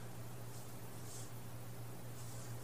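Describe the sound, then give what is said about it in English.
A steady, continuous wash of flowing creek water, an even rushing hiss with a faint low hum underneath, with no voices and no breaks throughout. “these sounds here, heard here arising from the creek”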